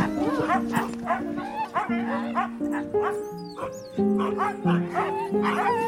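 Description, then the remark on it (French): Dogs bark and yip excitedly in a steady, overlapping stream, loud, with high-pitched yelps mixed among the deeper barks throughout. “Et on est en train de promener un Yuki”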